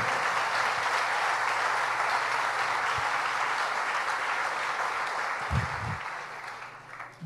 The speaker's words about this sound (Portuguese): Pode aplaudir mesmo.